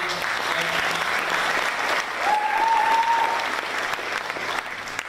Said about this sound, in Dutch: En zo zullen we gewoon eerst een applaus geven voor de keuze.